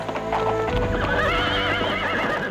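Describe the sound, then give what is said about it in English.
A horse whinnies loudly, its wavering neigh rising over a steady clip-clop of hooves, as Amar Das rides to meet the Guru. No voices are heard. “Amar Das rode to meet the Guru.”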